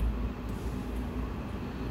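moving train interior rumble

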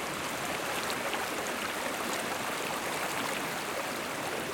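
babbling

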